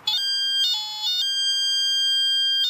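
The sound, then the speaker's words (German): A metal detector gives off a loud, sustained electronic tone that jumps between a couple of pitches, steady and piercing, with no voices. “begab die Sonde von Westphal ein lautes Geräusch von sich. Das klingt dann ungefähr so.”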